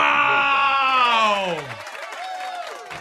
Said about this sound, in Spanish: Creo que el aplauso lo merece.